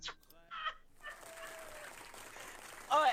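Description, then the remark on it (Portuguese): A quick run of hand clapping, dense and steady for about two seconds, framed by short bursts of a voice just before and right after. “Não, pera que eu tenho feito as palmas aqui, pera aí que eu vou ter que bater a palma pra ele.”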